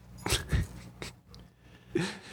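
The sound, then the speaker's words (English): Dogs scuffle playfully in a basement, letting out a few short growling, snarling bursts separated by brief pauses, with heavy breathing in between. “been laying on separate ends of the room all day, and as soon as as soon as something's recording, it's dog fight time.”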